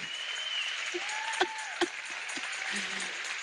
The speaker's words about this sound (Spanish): Pónganse de pie. Ellos se comprometieron estos días. Yo quiero bendecirlos. Denles un aplauso fuerte.